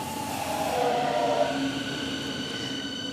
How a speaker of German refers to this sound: Gut, da kommt der Zug. S41. Wir fahren heute links herum.